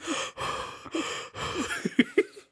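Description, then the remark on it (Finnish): A voice imitates heavy, raspy breathing, several drawn-out huffing breaths in a row, ending in a few short, sharp gasps, as in a threatening heavy-breathing phone call. “Uhkailu, huohotuspuhelu.”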